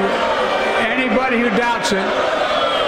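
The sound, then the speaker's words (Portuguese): A loud, dense crowd boos and shouts continuously at Joe Biden during his State of the Union address, after he accuses Republicans of caring only about the wealthy. Many voices overlap into a steady roar that fills the whole stretch without letting up. “Joe Biden a ser ocupado uhum. em pleno claro. Estado da União depois de acusar os republicanos de apenas preocuparem com os mais ricos.”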